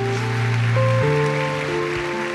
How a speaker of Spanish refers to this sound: Dele un aplauso fuerte a Dios si usted lo cree.